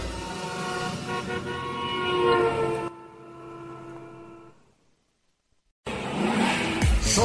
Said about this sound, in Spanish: Sobre Rueda. El programa donde rugen los motores.